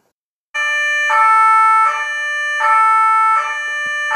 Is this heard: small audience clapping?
no